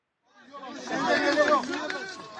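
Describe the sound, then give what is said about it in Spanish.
A crowd erupts in excited, overlapping shouts and cheers, many voices swelling quickly from quiet to a loud, sustained celebratory clamor as Mexican army soldiers rescue a 70-year-old woman alive from rubble. “Estas celebraciones que acabas de escuchar son de un rescate que ocurrió ayer y es que soldados del ejército mexicano lograron sacar con vida a una mujer de 70 años entre los escombros.”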